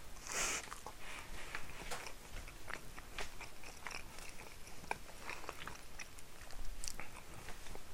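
Chewing and biting of food during lunch, with repeated crunchy bites and wet mastication sounds continuing steadily throughout, loud, with no talking.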